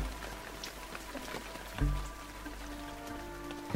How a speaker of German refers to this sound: Sein geflüstertes Ja, ja, ja geht im Trommeln des Regens unter.